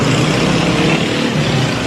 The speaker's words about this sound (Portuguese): Deixa eu passar essa moto barulhenta aqui.